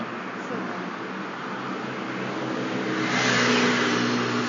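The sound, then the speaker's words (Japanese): A car passes by outside, its broad road rumble and engine noise swelling steadily and peaking near the end, with faint voices underneath. “車通り過ぎちゃう”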